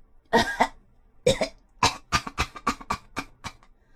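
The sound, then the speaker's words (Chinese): A fellow in a story, who has come up from the cellar door, has a harsh, raspy coughing fit: a couple of heavy coughs, a pause, another pair, then a run of about seven quicker, hacking coughs that gradually weaken. No speech. “哦，艾美丽，艾美丽， 那个家伙咳嗽着说：“ 我太难受了。”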